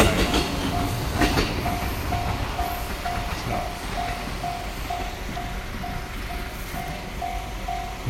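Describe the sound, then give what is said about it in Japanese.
A train rumbles and clatters steadily past while a railroad crossing bell dings in a fast, regular rhythm throughout, with no voices. “踏切が終わります”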